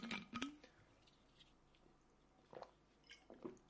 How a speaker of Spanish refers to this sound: Uf, necesito beber agua.